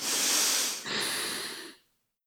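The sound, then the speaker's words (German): An audible breath cycle in a breathing exercise: a strong, airy, active inhale lasting under a second, then a slightly softer passive exhale released without effort, fading out into silence. No one speaks. “Und stopp nicht hyperventilieren und jetzt aktiv einatmen und die Luft von alleine weggehen lassen.”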